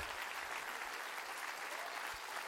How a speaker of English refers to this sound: Clap your hands and rejoice to that.